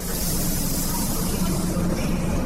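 A steady, fairly loud rumble of railway station ambience at Wrocław main station in Poland, where trains carrying Ukrainian refugees arrive, with a low mechanical drone and broad hiss that holds evenly throughout, like a train idling or rolling in. No one speaks.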